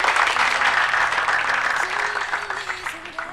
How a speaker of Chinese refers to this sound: 伴随着熟悉的掌声。